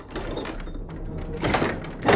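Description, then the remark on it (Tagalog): A bedroom door is pulled shut in a hurry, a brief scraping rush of movement followed by a sharp knock as it closes at the very end. “Dala ng trauma ko sa kagat ng aso, ay napatakbo ako sa kwarto ko at mabilis na sinara ang pintuan nito”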